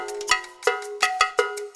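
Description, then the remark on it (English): A cowbell clanks about six times in an uneven rhythm, each loud metallic strike leaving a bright, ringing tone that hangs between hits. No voices. “There are lots of types the church bell, the cowbell,”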